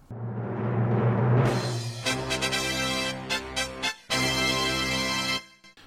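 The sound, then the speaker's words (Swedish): A short, loud musical jingle signalling the start of a quiz segment opens with a rising swell, then bursts into punchy rhythmic stabs and a sustained final chord that cuts off abruptly. No one speaks over it. “Du, nu kommer det en signal som eh, låter så här.”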